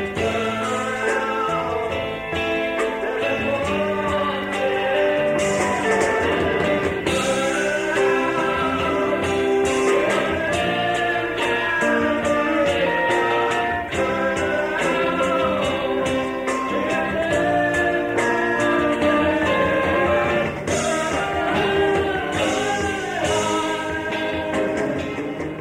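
A man sings a soaring, theatrical melody over full instrumental accompaniment as the character Baal in the college stage production The Dream Engine, his voice bending through sustained, vibrato-laden notes at a steady, loud level for the whole stretch.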